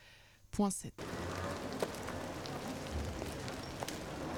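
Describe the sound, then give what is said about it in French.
Heavy rain patters steadily and densely on a surface, a loud continuous hiss with scattered louder drops, following a brief voiced sound at the very beginning. “Encore une nuit d'errance, encore la pluie qui claque.”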